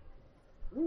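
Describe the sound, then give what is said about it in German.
A single deep, steady hoot from an eagle-owl at the back right of a tour coach rises at the end after near silence, clear, with no voices. “Ach hier, das ist ein Uhu.”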